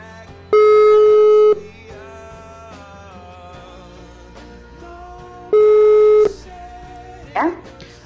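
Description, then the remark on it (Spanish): A telephone ringback tone sounds twice, each a loud steady beep lasting about a second with a long pause between, over soft background music, as a call is placed to a woman. “Entonces, bueno, vamos a llamarla a ver que nos cuente un poquito.”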